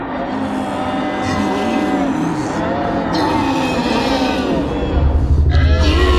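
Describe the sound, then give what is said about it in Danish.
A deep, rumbling Tyrannosaurus rex roar, as reconstructed by a research team, drones continuously for about six seconds, loud, with groaning, bellowing tones and a heavier bass swell near the end. “et lille lydklip, som er øhm, øh, faktisk øh, er det samme forskerhold, som der har kigget på, hvordan sådan et her øh, brøl fra en øh, Downs T-Rex vil lyde.”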